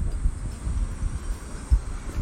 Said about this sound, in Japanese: 今ねちょっと外にいるので、まあ、声が聞こえにくいかもしれませんがセミの声がしててね